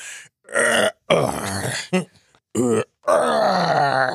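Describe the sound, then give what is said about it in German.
A series of low, drawn-out groans and moaning grunts from older male voices, made as mock sex noises, several separate bursts with short pauses between them, strained and throaty with no words. “nur halt mit Altherrengeräuschen.”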